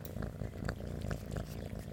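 A cat purrs steadily on a person's lap, a low continuous rumble with soft rhythmic pulses, heard alone without any talking.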